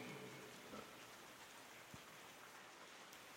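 Light rain falls steadily outside, a soft continuous hiss with faint scattered drops pattering on a surface, quiet, with no voices.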